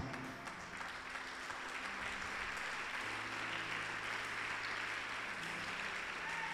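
A crowd applauds steadily, dense clapping filling the space for several seconds at an even, sustained level with no voices standing out.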